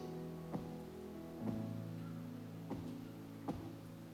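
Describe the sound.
A shepherd's staff taps the ground four times in a slow, slightly uneven rhythm, each knock sharp, over a steady low hum with no voices.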